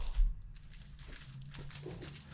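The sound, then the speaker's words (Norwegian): Wrapping paper crinkles and rips in a few quick, irregular bursts as it is torn off a package holding a lithograph, a dry rustling tear that comes and goes against a low background hum. “Bare riv av papiret.”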